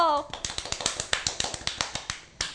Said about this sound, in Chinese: 拍手